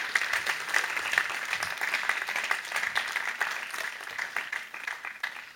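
An audience applauds steadily, a dense crackle of many hands clapping at an even level for several seconds before thinning slightly at the end. No one speaks.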